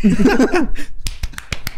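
A brief voiced laugh or murmur, then about six sharp, close hand claps in an uneven rhythm, crisp and fairly loud, like a small burst of applause.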